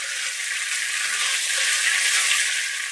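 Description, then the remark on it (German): Food sizzles steadily in a hot pan on an induction stove, a dense, bright crackling hiss that stays even for the whole stretch, with no voices over it. “Also es geht echt schnell, gerade wieder bei unserem coolen Induktionsherd, dass das anfängt zu braten, das ist richtig flott.”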